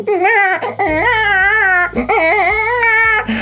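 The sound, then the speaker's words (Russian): A voice imitates a wife crying like a baby: two loud, wavering wails with a brief catch of breath between them, and no other sounds alongside. “Он говорит, я проснулся от того, что жена плачет как ребенок.”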